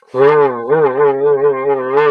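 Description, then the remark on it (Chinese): A voice imitates a running piston car engine: a steady, low, buzzing drone with slight wavering pulses in pitch, held for about two seconds without pause. “这个就是活塞式发动机的声音啊。”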